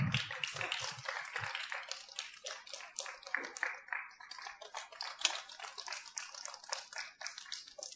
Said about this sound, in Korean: 자, 박수! 우리와 같은 박수 한번 찍어으요 자, 나올 때까지 박수 한번 쳐보 십시다